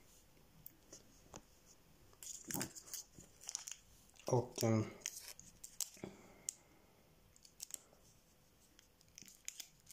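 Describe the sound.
Paper tearing and crinkling as a small cardboard advent calendar door, door 2 of 24, is pried open to reveal chewing gum, with scattered clicks and rustles. A voice briefly murmurs at the start.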